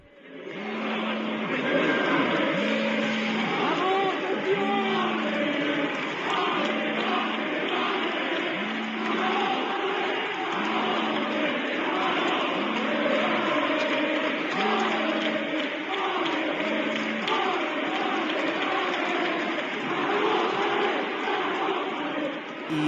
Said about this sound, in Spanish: Pero bueno, en lo estrictamente deportivo, este era el sonido de Zaragoza recibiendo a su autobús del equipo.